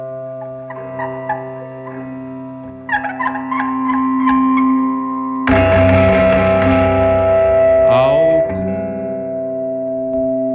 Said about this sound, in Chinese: 长时间的电流声，大家不会以为我们收音机坏了吧